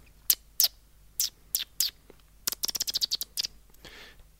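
A closed plastic water bottle creaks and crackles, a few scattered squeaky pops followed by a quick run of sharp crinkles, then a brief soft hiss, with no one talking.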